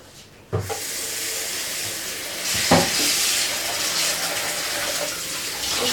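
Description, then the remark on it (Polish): A chicken breast coated in instant-noodle seasoning drops into a hot frying pan with a soft thud and starts a steady sizzling hiss as it is fried, continuing throughout, with a brief clatter partway through and no talking. “I przekładamy ją na patelnię, bo trzeba to podsmażyć mięsko.”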